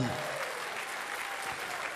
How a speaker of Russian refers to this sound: Дай Богу аплодисменты.